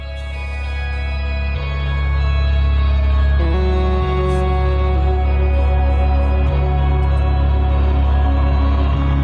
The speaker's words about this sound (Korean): 자, 지금 나오는 곡은 어, 플스5의 퍼스트 런칭 타이틀 스파이더맨 마일즈 모랄레스 어, OST입니다. 오피셜 트레일러 송이고요.